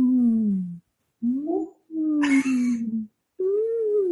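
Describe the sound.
A person imitates a llama's hum: four drawn-out, nasal, tonal hums separated by short pauses, with pitch wavering and rising, one carrying a breathy, buzzy edge.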